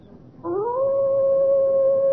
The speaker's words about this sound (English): However, I think even an experienced hunter might well find the baying of a fiend dog, a hound from hell, a soul shattering experience.